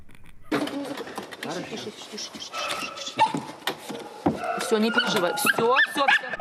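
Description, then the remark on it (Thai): Several dogs at the Chernobyl nuclear power plant bark and whimper in a busy, overlapping chorus, with high yips and whines rising over steady background noise, fairly loud throughout. “สำหรับสุนัขที่อยู่ในโรงไฟฟ้านิวเคลียร์เชโนบิลตอนนี้บางตัวได้บ้านใหม่ในสหรัฐอเมริกาแล้ว”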